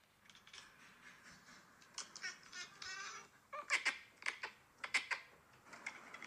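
A cat chatters at birds in quick bursts of clicking, chirpy trills, with a few sharper chirps toward the end, not loud, and no talking.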